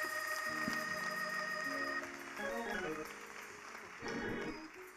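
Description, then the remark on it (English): An audience gives God a hand clap of praise, breaking into steady applause, a dense wash of clapping that swells and dips over about five seconds, mixed with cheering voices and sustained musical tones underneath. “Come on, somebody give God a hand clap please.”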